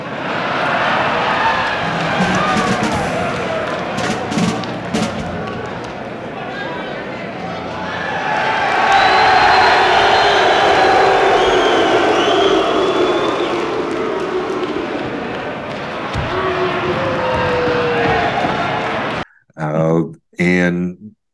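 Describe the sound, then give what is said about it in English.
A large prison audience of inmates roars, cheering and clapping when the performer mentions the warden, in a loud, sustained wave that swells midway and slowly eases off, followed by a brief burst of someone speaking. “Uh, whenever he mentions the warden, you get a nice round of uh, from the very captive crowd.”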